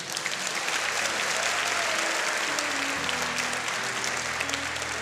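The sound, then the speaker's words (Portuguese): Sustained applause from a crowd for a group of people from Rondon do Pará who travelled 45 hours. A dense, steady wash of clapping stays loud and even throughout, with faint low tones humming underneath. “Vamos aplaudir, minha gente.”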